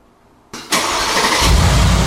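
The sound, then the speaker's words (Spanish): A pickup truck engine starts: after a moment of quiet, a brief starter crank gives way to the engine catching with a loud roar, which settles into a steady, deeper rumble. No talking. “Porque la que traemos, pues, la camioneta no, pues, no prende al llavazo.”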